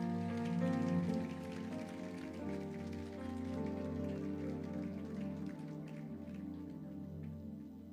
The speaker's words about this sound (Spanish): Come on, give God a clap offering. Dar un aplauso al Señor.